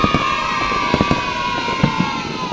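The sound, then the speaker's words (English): Several sharp fireworks bangs burst out at irregular intervals over a constant roar of a crowd cheering and shouting, with a steady whistling tone underneath, at the Milford Haven Roundtable Free Fireworks Event on Tuesday, 5th November. “The Milford Haven Roundtable Free Fireworks Event, Tuesday, the 5th of November.”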